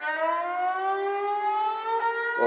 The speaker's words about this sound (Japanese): じゃあこのサーランギ、うん、ね、どういう特徴があるのか、はい、ちょっと皆さんに聞いていただきたいと思います。弓で弾く楽器なのと、あとはこのギターとかってったらフレットとかあるんですこれはフレットがないんであの自由にこうスライド